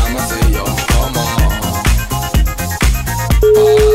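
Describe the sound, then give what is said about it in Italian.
A phone rings out with a looping electronic ringtone melody, steady pulsing beats repeating for several seconds with no pickup, ending on a held tone. “Squilla ma non risponde.”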